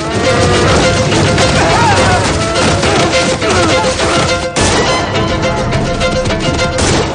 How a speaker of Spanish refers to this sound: William abre otra puerta del cercado. El ganado arrolla a Charlie.